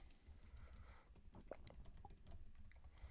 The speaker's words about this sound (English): The sound of typing.